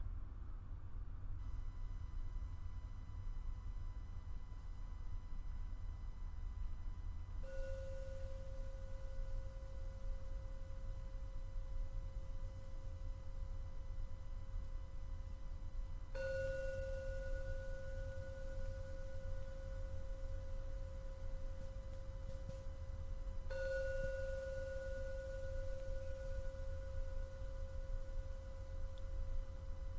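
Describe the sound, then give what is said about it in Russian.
Three gong strikes, spaced several seconds apart, signalling the end of a meditation, each a clear mid-pitched ring that hangs and slowly fades over a steady low background hum, with no talking. “Пожалуйста, прислушайтесь к каждому звуку гонга.”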